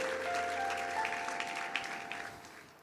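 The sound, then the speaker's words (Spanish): A crowd claps steadily across the whole stretch, a dense wash of many hands, with a sustained keyboard tone humming faintly underneath; the applause is given as praise to the Lord. “De un aplauso, alabanza del Señor.”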